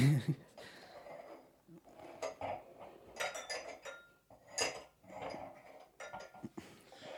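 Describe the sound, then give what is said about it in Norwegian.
Beer glasses clink and knock together as they're moved around on a table, a series of irregular, bright clattering hits with brief pauses between, fairly loud against a quiet background. “Da tar jeg glasset som står bak min Frydenlund. Flytter hit.”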